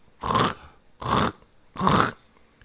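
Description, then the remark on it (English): Three slow, evenly spaced crunching steps of people walking on gravel outside a cabin, each a gritty scrunch of about half a second, clear with quiet gaps between and no voices. “This time I open the door as quick as I can, and right before I open it, I should say, I start hearing like crunching sounds, like”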